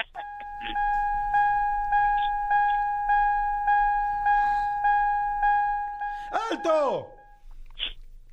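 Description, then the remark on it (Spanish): A building alarm sounds a loud, steady electronic tone that pulses rhythmically about twice a second, holding the same pitch throughout, with a brief voice breaking in near the end. “Eh, la alarma de un edificio.”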